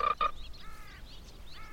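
small frog croaking

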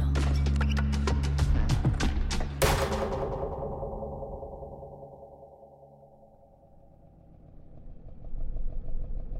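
motorcycle engine idling

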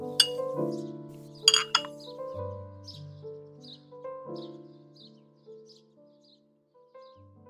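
cups clinking together

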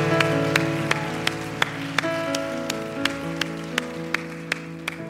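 church audience applause

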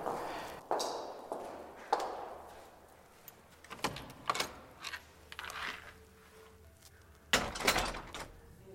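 footsteps climbing stairs

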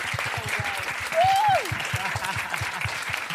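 crowd cheering and applauding

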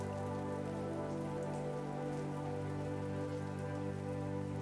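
rain falling

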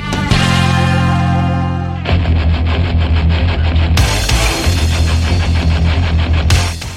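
rock song playing

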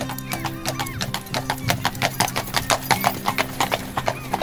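horse-drawn carriage hooves clip-clopping

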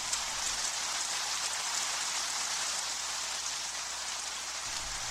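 rain falling

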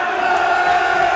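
stadium crowd roaring

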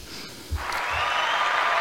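applause sound effect

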